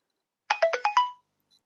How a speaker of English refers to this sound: Oh, very nice. How many people do you think heard that and are now checking their phone?